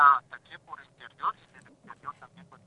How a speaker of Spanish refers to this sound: Yo no sé si te separas del teléfono, pero te oigo bien lejos.